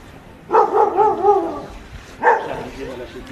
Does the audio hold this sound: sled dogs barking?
yes